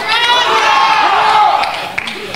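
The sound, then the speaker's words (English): A large crowd, joining a Marine, shouts a drawn-out "hoorah" together, loud, many voices blending into one sustained roar that swells and then fades over about two seconds. “He's going to do it again, and all of you not Marines, are going to do it with him.”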